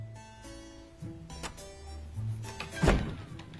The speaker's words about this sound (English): Hey, Elizabeth, shut the door.